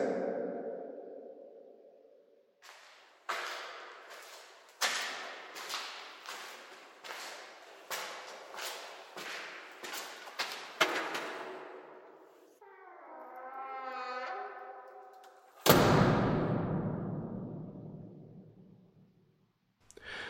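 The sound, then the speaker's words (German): Echoing construction ambience in the bare basement of a new museum entrance area on the Funkerberg, where the below-ground shell is finished: a steady series of sharp knocks ringing out, a brief whining machine tone, then a loud crash fading into reverberation. “So klingt es im Untergeschoss des neuen Eingangsbereiches im Museum auf dem Funkerberg.”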